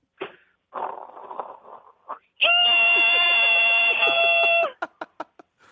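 A caller imitates water boiling, performed again as an encore, starting with breathy bubbling and hissing bursts, then a long, loud, steady whistling tone like a kettle, ending with a few short clicks.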